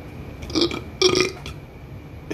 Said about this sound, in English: Sometimes she ends her sentences, she just burps at me. Like the fucking burp is the period.